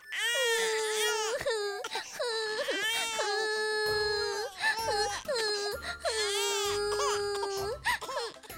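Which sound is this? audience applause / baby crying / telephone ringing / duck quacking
baby crying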